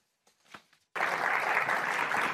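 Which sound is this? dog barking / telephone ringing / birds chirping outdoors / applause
applause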